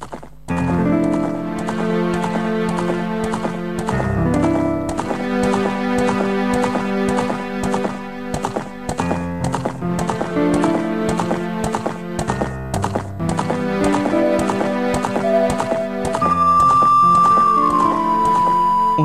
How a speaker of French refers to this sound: entend d'ailleurs le son d'un ocarina, qui est un instrument omniprésent tout au long du jeu. Cette musique résume à elle seule les principaux aspects du jeu.